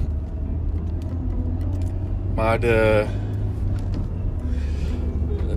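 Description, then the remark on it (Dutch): A train rumbles past behind the speaker in a deep, steady roar that fills the whole clip, with a man briefly speaking over it partway through. “Dat is gewoon niet te doen met die trein achter me.”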